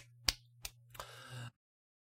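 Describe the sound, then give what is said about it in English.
A few sharp, isolated claps ring out one after another at a slow, deliberate pace, the last one softer and followed by a brief hiss before silence. “Uh, slow clap here.”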